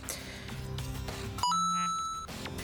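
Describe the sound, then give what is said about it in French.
A phone's email notification chime, set in the phone's sound settings, rings once, bright, its tone ringing out for just under a second before fading into muffled background noise. “Euh, alors, réglage, comment ça marche après euh, Son. Euh, Notification, mail.”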